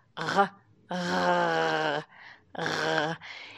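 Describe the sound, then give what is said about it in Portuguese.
A voice imitates a dry gargle, lightly scratching the throat as if gargling without water, to show where the French R sound vibrates: three moderately loud throaty rasping bursts, a short one, a long sustained one, then another, with faint breathy sounds in between. “Mas pense como se você estivesse fazendo um gargarejo sem água.”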